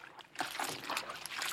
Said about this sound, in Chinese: 是鸭子的红色小脚扬起水花。啪叽，啪叽，啪叽